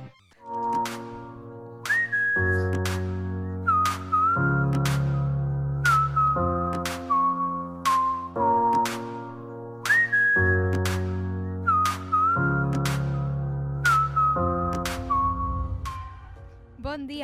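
A pop song opens with a bright whistled melody riding over steady chords and a punchy beat, the tune repeating in short phrases, loud and close throughout.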